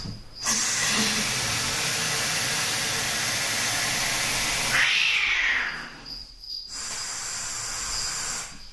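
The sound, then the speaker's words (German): Cats fighting, with sustained loud hissing and a rising, wailing yowl midway, then a brief pause before more hissing resumes. No one speaks. “Im Hintergrund hört ihr, dass die Katzen sich wieder ein bisschen fetzen, aber das ist ja normal so.”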